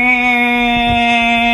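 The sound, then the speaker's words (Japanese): A voice imitates a cicada's call in the style of Mongolian hoomii throat singing, holding a steady, buzzing drone rich in bright overtones, sustained loudly for the whole short stretch. “かなりセミだと思うわ”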